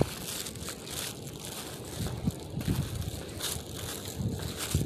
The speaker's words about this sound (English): It's big windy out here, so.